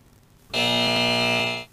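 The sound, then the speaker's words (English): A harsh, loud game show buzzer sounds once, a steady nasal electronic blare held for about a second before cutting off abruptly, with no talking over it. “Got you the buzz on that one.”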